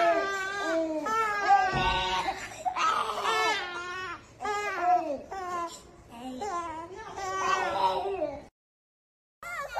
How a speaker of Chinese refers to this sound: 网上流传出很多婴幼儿被单独隔离在医院的视频，视频里孩子们哭声一片，没有足够的人手照料，令人心痛不已。